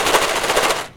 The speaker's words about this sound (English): That's the sound of jelly bellies being put away.